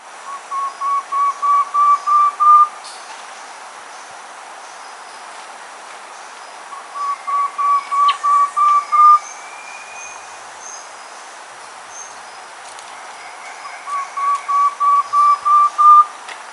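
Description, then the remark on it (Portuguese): A Myrmotherula simplex (tepui antwren) song repeated three times, each a quick series of about eight to ten clear, whistled notes rising slightly in pitch and loudness, with pauses of several seconds between songs. “Irmotera simplex, toron de peito pardo, tepui pita.”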